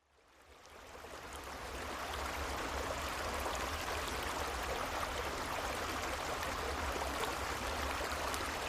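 A creek behind a cabin flows steadily with a continuous rushing, babbling wash of water that fades in over the first couple of seconds, then holds at an even level with no voices.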